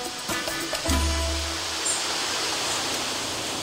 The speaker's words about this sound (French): Je l'ai rencontré dans la Naudière, sur le bord d'une rivière. Vous allez l'entendre, il ventait pas mal cette journée-là.